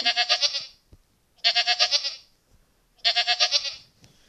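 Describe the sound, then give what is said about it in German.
An adult goat in a video game bleats three times in a steady rhythm, each call a loud, wavering, tremulous bleat lasting about half a second, with short silences between them and no talking. “also eine erwachsene Ziege, eine Ziege, eine ganz normale, wo nicht gepaart ist, gibt 1 bis 3, gepaarte sind 1 bis 7. Und das Geräusch sind”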